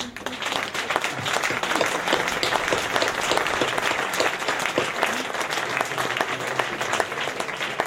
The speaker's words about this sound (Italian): Ecco, io adesso farei un grosso applauso per lui.